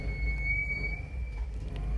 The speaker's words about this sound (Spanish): Bueno, hablando de fluir, esperemos a que se vaya esta moto porque mm, a veces, bueno, Medellín es así. Welcome to Colombia.